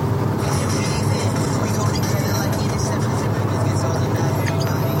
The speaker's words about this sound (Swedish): Istället sitter jag i en bil på väg mot Göteborg.